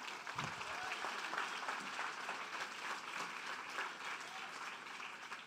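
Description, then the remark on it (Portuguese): A crowd claps steadily and continuously during a church sermon, applauding Jesus, a dense wash of many hands at moderate volume for the full few seconds, with no voices standing out. “pode aplaudir Jesus.”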